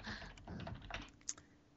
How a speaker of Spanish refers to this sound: Ya lo está buscando. He oído por ahí un teclado. Ahí está.